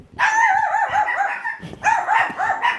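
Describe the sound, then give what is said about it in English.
Dogs barking in a rapid run of high, yelping barks, loud, broken by a brief pause before a second burst. No one speaks. “oh God, his ghost is here and the dogs are barking.”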